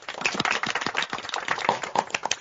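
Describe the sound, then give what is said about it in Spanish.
Audience applause for the day's guests on the show Fuerte el Asunto: many hands clapping in a dense, crackling wash of sharp claps that stays steady and fairly loud for a couple of seconds, with no voices. “Pues tener un gran aplauso a nuestras invitadas del día de hoy.”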